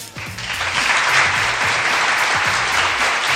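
Steady applause from a small group, dense and continuous clapping that holds at an even, fairly loud level from start to finish, with faint voices underneath.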